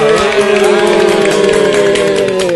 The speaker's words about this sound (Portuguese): Uh, salva de palmas aí.